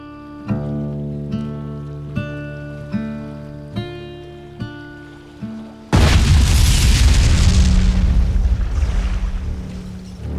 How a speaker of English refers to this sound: Around 2 a.m., Sultana's patched boiler exploded. Then, a split second later, two more followed, and roughly 400 to 500 men were killed instantly by the impact.